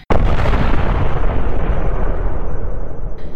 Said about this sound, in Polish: Nagle usłyszeliście tylko głuche tąpnięcie, a za chwilę potem eksplozję.